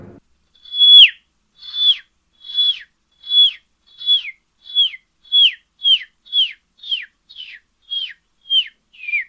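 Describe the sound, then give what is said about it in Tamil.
A voice imitates the peeping of a baby chick raised at home: a steady run of about fourteen high, downward-sliding chirps, clear, growing slightly quicker, with no talking. “வீட்டில் வளர்க்குற கோழி குஞ்சு சத்தம் கேட்டால் எப்படி இருக்கும் அப்படின்னு சின்ன கற்பனை இந்த பேபி சிக்கன் ரைட் சீக் அதோட சத்தம் கேட்டால் எப்படி இருக்கும்னு சின்ன கற்பனை”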